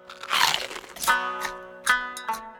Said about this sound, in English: The crunching sound intrigued him. How could something be soft but crunchy at the same time? It wasn't like fish or humans either. Their bones hurt his teeth. This treat sounded different, and it would be perfect.